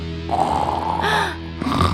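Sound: imitated snoring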